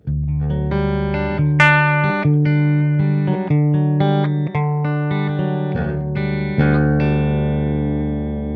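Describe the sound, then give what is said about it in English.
A clean electric guitar, a Paul Reed Smith played through two Bravado amps set up the same way, plays a sequence of sustained chords and single notes, each ringing out with a soft reverb tail, steady and fairly loud, with no voices. “Uh, with my Paul Reed Smith, my clean tone, you uh, just kind of heard a little bit with the reverb.”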